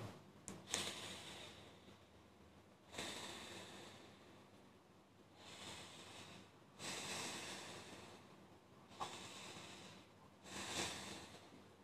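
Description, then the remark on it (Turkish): Slow, deep breaths taken as a short routine before smiling, each a long airy inhale followed by an exhale, repeated about three times with short pauses between and no talking. “3 derin nefes al, gülümse, köpeği okşa, tekrarla.”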